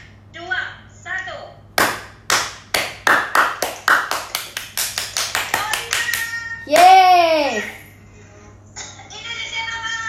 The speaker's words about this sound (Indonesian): Uh, tepuk Oliver untuk terakhir ya, Oke.